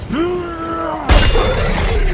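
A drawn-out tonal cry gives way to a sudden, heavy hammer blow striking a serpent's gum, bursting into a loud, sustained shattering crunch as dozens of venomous teeth shatter, forceful, filling the rest of the moment.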